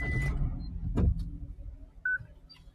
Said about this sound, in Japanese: エンジンかけた方がいいんじゃない少しは。エンジンかけますかね、一応。